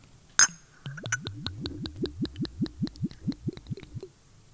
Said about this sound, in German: Das klingt ja gut. Geiler Sound. Geiler Sound. Können wir uns hier patentieren? Ah, es ging nur am Anfang, wo er noch äh, er gegluckert hat durch den Flaschen.